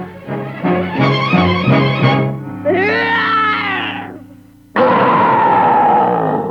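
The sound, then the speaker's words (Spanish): A boy imitates a bear's roar in several loud bursts: a pulsing growl, a rising and falling howl, then a rough, breathy roar after a brief pause. “No, lo que quiero es un rugido de oso mayor.”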